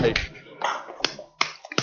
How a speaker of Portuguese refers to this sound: todos os camaradas de estaleiro deviam agora dar uma salva de palmas ao grande Robocop